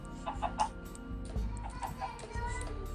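Chickens in a video game, being attacked by the player, cluck in short, repeated bursts over a steady low hum of game music, with a faint ticking running through and no voices.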